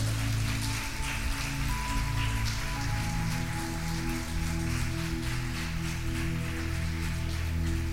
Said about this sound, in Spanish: Si quieren, denle un aplauso al Señor si, si creen que es cierto esto.